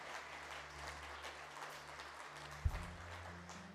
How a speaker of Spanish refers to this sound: Dale un aplauso a Cristo. Dale un aplauso a Cristo. Dale un aplauso a Cristo.